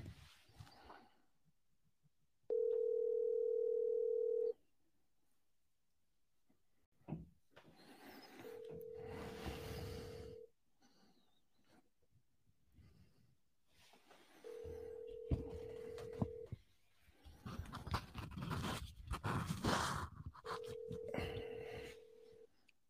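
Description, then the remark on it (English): A telephone ringback tone of an outgoing call that nobody picks up sounds four times, each steady two-second burr followed by a pause. The first ring is clear and loud; later rings sit under rustling, noisy background activity. “It's really ringing.”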